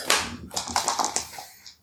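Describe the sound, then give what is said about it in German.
Three dice rattle and clack against a hard surface in a quick, uneven burst of sharp clicks, tapering off into quieter taps as they settle. “Hier sind drei Würfel drin.”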